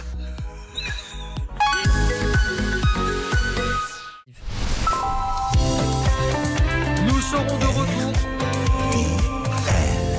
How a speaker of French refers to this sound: C'est un nouveau jingle, je ne le connaissais pas celui-là.